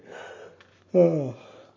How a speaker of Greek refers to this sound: έπνιξε κι αυτή ένα χασμουριτό.